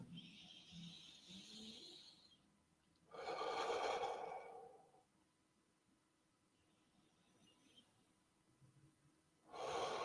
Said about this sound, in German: Und dann atmen wir nochmal zwei, dreimal tief ein und aus.